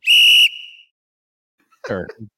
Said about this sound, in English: tweet. what was that sound? I was doing something else and I couldn't get to the tweet, so uh, the whistle blow.